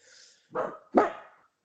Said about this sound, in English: Oh, dogs are going.